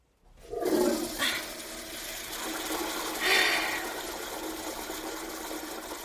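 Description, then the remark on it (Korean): A squat toilet in a shared bathroom is flushed by pressing its lever with a foot: a sudden loud rush of water settles into a steady, churning gurgle, with a brief hissing surge partway through as the water keeps draining. “나는 다리가 더 저려오기 전에 서둘러 용물을 끝낸 뒤 화장지를 변기해버리고 발로 레버를 눌렀다.”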